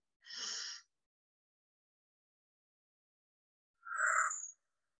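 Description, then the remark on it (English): A short, airy, deep intake of breath in through the nose into the belly, then about three seconds of silence and a long, breathy exhale out through the mouth, both fairly soft, with no talking. “Take a deep breath in through the nose, past the chest, into the belly and long exhale out through the mouth.”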